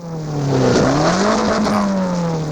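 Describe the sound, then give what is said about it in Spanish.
A non-electric rally car engine, warmed up and ready for the Rally de Narón, revs loudly and steadily, its droning pitch rising and dipping over a couple of seconds with a harsh, buzzing exhaust tone and no talking. “a eléctrico no suena. Este está a punto ya para el rally de Narón. Ya tiene temperatura y todo.”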